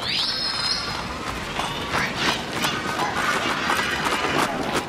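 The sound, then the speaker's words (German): Hooves of the Emperor's golden horse-drawn carriage clip-clop in a steady, fairly loud rhythm as it arrives, over a busy, rumbling background, with a brief high whistling tone at the very start. “Der Kaiser ist in seinem goldigen Gütschli anzufahren gekommen”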